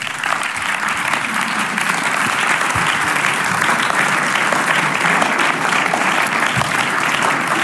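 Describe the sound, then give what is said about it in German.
A crowd applauds steadily for several seconds for people aged over 75 called up onto the stage, a dense, even wash of clapping hands with no breaks, loud and sustained from start to finish. “Wir geben einen Applaus.”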